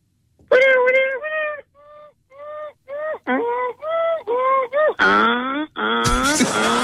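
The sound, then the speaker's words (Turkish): A voice imitates a car alarm, cycling through a string of short, rising and falling whooping tones before shifting into a louder, sustained warbling wail, clear. “Araba alarmı sesi yapsın.”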